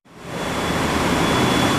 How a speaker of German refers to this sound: Es ist laut, sehr laut. Vor uns ein Koloss aus Eisen und Stahl, groß wie ein Haus, geschätzte 50 Meter lang. Die Papiermaschine 4 im SET-Werk Mainz-Kostheim. Hier wird Papier getrocknet, 10 Tonnen pro Stunde.